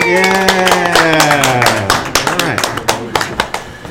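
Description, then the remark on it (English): A small group of women claps for a few seconds during the Great American Morning Show, recorded around the corner from Rush Copley Hospital, across the street from a CVS; the claps are fairly loud while a voice calls out over the applause and trails off as the clapping thins into scattered hits. “Can we clap for that, ladies?”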